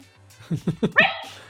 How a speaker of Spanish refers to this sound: también estoy haciendo directos o entrevistas o tal y me viene la perra y se pone a ladrar y te encuentras en una situación que dice ¡ay, míralo!